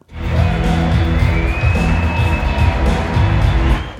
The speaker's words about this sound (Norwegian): En blond kvinne i lys rosa jakke kommer ut på den enorme scenen med et stort smil. Publikum jubler og klapper. Kongressrepresentant Marjorie Taylor Green er åpenbart populær i denne forsamlingen.